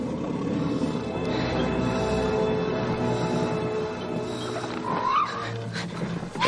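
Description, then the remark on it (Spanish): Giant oliphaunts, elephants with four huge tusks carrying wooden defences full of warriors on their backs, roar in a dense, loud, continuous din of low rumbling bellows, with a rising, shrill trumpet-like cry breaking through toward the end. “Los olifantes son elefantes gigantescos con cuatro enormes colmillos.”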